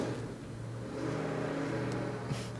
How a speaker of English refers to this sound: Don't you love people with super loud trucks like that? They don't drive by my house early in the morning and wake me up.